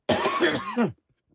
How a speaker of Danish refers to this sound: så ja. hvis jeg øh, i løbet af programmet øh, hoster romme mig, eller på anden måde har en form for respiratørsk dårligdom, jeg skal undskylde lytte. Undskyld den. Men jeg kan lave den her lyd nu.